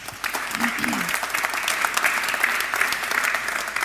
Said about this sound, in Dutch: Mag ik een applaus